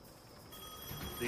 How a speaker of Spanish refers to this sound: el teléfono sonó en la cabina.